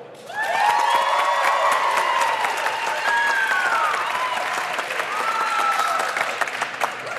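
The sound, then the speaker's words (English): Sustained applause from a sizable audience voting for a team, steady and loud for several seconds, with a few cheers and whoops rising above the clapping. “So, so if you can, if you believe that it's uh, for team payments, give me a round of applause.”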